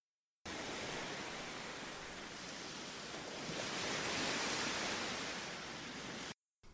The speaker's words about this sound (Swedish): Och där slutar filmen till vågor som slår mot... Ljudet av vågor som slår mot stranden.